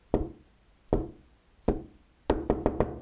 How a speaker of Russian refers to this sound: В темной комнате на мгновение вспыхнула спичка, погасла. Потом снаружи стук.